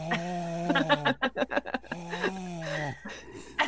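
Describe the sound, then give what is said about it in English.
A person imitates the loud, labored breathing of their cat Hemingway, making long droning voiced tones broken by a quick run of rhythmic huffs. The sound is fairly loud, with no talking. “Uh, just with Squeak, with Hemingway, you don't you don't need to look; you can hear from two rooms over.”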